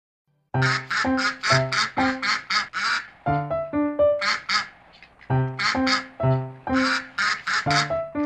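Loud, nasal duck quacks come in rapid rhythmic bursts, rising and falling in pitch like a bouncy melody, with short pauses between groups and no voices.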